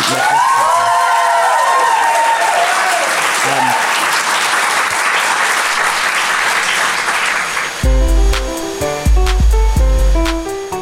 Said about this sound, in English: Um, you've been extraordinary guests, please. A round of applause for these.